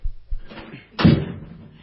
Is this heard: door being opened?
yes